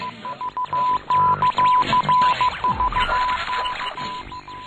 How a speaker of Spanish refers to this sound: Es que me ah, estaba taladrando el cerebro Sí, y las señales horarias. Eh, o la señal horaria cuando marcan un gol, ¿no?